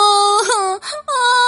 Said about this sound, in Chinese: 小鼹鼠家的宝宝正在伤心的哭呢。